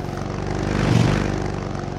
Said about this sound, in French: Ah, on n'est pas bien là, dans le calme, la sérénité, la quiétude, à se détruire les oreilles en plus de s'abîmer les poumons parce qu'un idiot bête avait envie de montrer que sa moto roule bien vite sur les pavés.